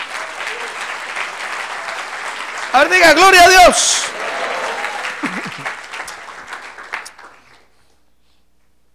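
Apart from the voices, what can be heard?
audience applauding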